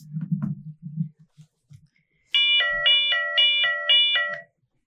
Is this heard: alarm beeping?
yes